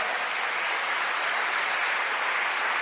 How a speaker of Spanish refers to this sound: Le damos un aplauso fuerte al Señor.